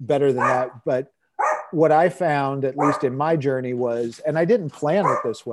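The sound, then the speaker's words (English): Dogs bark and yip in the background while a person keeps talking steadily over them, the barking coming in short bursts scattered through the speech. “And I am sorry about the dogs, but it's okay.”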